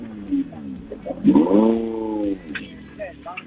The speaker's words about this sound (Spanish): Está ahí con todo el ruido de motores ahí. Eh, la verdad que es complicado el estar ahí con el ruido del motor, nosotros hablándole por, la línea.